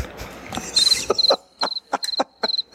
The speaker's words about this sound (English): Some crickets.